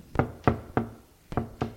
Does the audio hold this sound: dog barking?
no